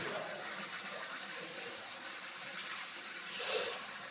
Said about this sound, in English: More water coming through the faucet.